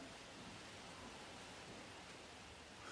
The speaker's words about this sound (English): Is that rain? Ice rain. Shit. Ice rain.